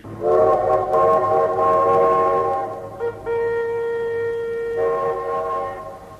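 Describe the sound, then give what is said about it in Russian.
A train whistle blows loud in long, sustained tones at a small railway station with a military troop train, shifting to a different pitch partway through, over a low rumble of railway noise. No one speaks. “Небольшая железнодорожная станция, воинской эшелон.”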